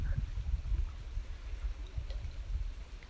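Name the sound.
lake waves lapping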